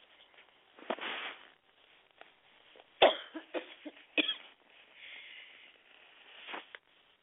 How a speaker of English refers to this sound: sorry about that. I didn't mean to cough in your ear.